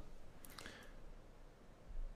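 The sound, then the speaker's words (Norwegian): A few soft papery rustles and flicks cluster in the first second as someone quickly leafs through the pages of a text, then fade into a quiet, faint hiss. “du sitter og blar opp et du, du, du, verker litt etter å komme i gang med denne teksten, du.”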